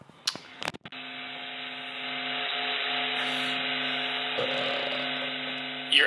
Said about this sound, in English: hearing oh. the vibration of the sun. It almost has a warmth to it. But that's the it's sound of the sun.